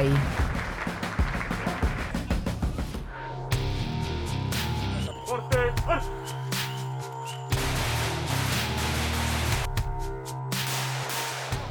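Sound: gunfire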